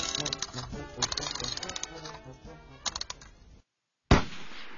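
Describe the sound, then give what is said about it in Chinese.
A single sharp starting-gun shot cracks out loudly after a brief silence and rings off, starting the final of a race. Before it comes a dense stretch of busy, clattering sound. “砰的一声枪响，比赛开始了。”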